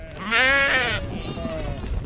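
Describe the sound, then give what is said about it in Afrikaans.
Several ravenously hungry sheep crowd at feed troughs on a farm in Van Wyksvlei, some climbing over others to reach the feed. They bleat loudly, one long wavering call overlapping others, followed by fainter bleats over a low background rumble of the flock. “Rasend honger skape dronk oor agtig saam by die voerbakke en party klouter selfs op die ander se ro om die voer by te kom.”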